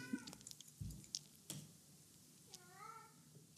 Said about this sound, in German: So, ich glaube, deine Katze hat Hunger. Ähm, sie, ich ich höre sie die ganze Zeit und es fällt mir schwer, mich jetzt noch weiter auf das Gespräch zu konzentrieren.